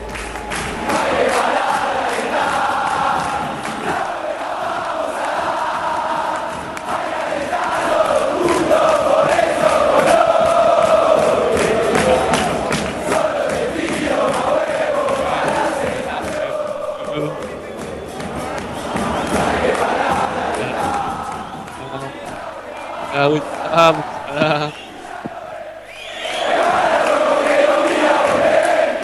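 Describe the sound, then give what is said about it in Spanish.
A huge football crowd sings a chant together in a loud, steady roar of massed voices that rises and dips briefly near the end, with rhythmic thumps beneath the singing. “¿Podemos escucharlo un poquito más la, canción de la cancha? Porque la verdad que lo que tenemos más que nada es la cancha.”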